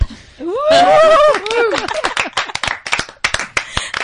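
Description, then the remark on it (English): An audience slaps their thighs in a thunderous thigh clap, a loud, scattered burst that thins into irregular smacks, opening with high whoops and cheering voices. “So if you feel me, give me a thunderous thigh clap.”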